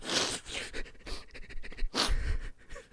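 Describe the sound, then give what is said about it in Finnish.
A dog snores in deep sleep with raspy, snorting breaths: one heavy breath at the start and another about two seconds later, with quieter wheezing in between. “niin mulla, itse asiassa mulla taitaa kännykässä olla vieläkin pari sellaista videoa, missä ne on siis niin, ihan niin kuin siis kuorsaa.”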